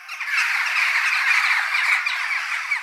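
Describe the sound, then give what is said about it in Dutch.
A magpie's harsh, rattling chatter runs steadily for a few seconds, loud, with no voices or other sounds around it. “Ook een ekster, hè?”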